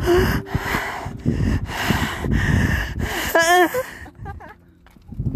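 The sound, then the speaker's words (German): Heavy, snorting breaths huff loudly into the microphone in a rapid, uneven series, then break into a brief wavering, high-pitched voiced squeal before trailing off into quieter breathing. “Das war einfach nur Schnaufen.”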